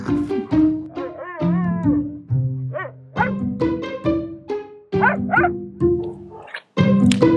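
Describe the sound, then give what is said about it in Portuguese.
Dogs barking and yelping frantically as a cat torments them, a loud, nearly nonstop run of overlapping barks with a few whining, rising cries mixed in and no talking. “É, algum dos meus gatos está atormentando os meus cachorros.”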